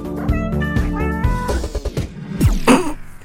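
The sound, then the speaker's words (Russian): A cat meows repeatedly in a drawn-out, wailing way, loud, with several harmonic-rich cries in quick succession and no voices. “Короче, что за мяу?”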